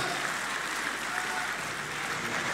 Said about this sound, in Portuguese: Muitos aplausos agora em Santarém para críticas eh, de André Ventura aos eh, impostos que se cobram eh, em Portugal.